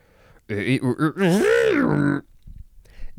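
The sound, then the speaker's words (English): A voice imitates a distorted sound effect: a few quick throaty pulses, then one long, wavering groan that bends up and down before cutting off, followed by quiet. “Um, yes, that was everything for distort, which means we now need to make a distorted sound effect, which goes a little bit something like this.”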